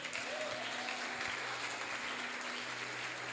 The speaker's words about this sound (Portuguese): Dá um forte aplauso a Jesus.